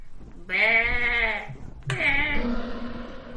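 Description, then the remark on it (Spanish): A voice imitates a sheep's bleat twice in a row, each a wavering, nasal baa held for about a second, the second slightly softer and trailing off. No speech. “Y fue así como convencieron al Kenku para imitar el balido de una oveja y así atraer al monstruo al lado y vaya si funcionó.”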